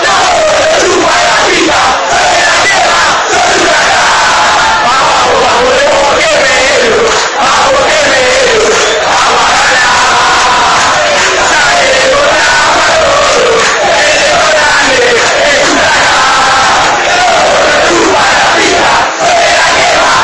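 A huge stadium crowd of supporters of the Argentine football club Huracán chants in unison, loud and continuous for the whole stretch, a dense roar of massed voices with the rising and falling line of the chant carried on top.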